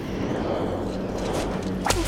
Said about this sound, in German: Die lange schwarze Zunge ihrer Gegnerin flatterte vor ihr in der Luft wie eine Peitsche